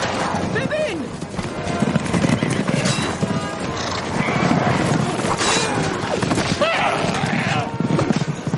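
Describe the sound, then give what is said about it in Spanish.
A loud, continuous thunder of many horses galloping as the Riders of Rohan charge Saruman's army, with occasional whinnies, crashing impacts and shouting voices blended into a dense, chaotic roar. “Jinetes de Rohan atacan al ejército de Saruman.”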